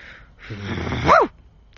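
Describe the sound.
A person imitates a dog with a single drawn-out, yelping bark that rises to a strained peak and then cuts off, heard close up with no other talking.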